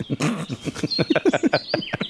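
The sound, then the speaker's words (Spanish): Birds chirp in a quick, steady run of repeated calls, clear, with faint outdoor ambience underneath and no one talking, on a riverbank while someone is fishing. “Sí, porque yo no saco peces, entonces oigo pájaros.”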